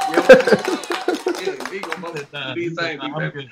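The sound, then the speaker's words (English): A burst of audience applause, dense rapid claps mixed with cheering voices, fading after about a second and a half as people talk and call out over the dying clapping. “Applaud this guy one more time.”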